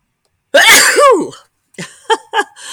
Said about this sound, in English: Um, oh, I think the mosquito Candles making me sneeze.